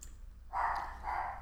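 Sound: dogs barking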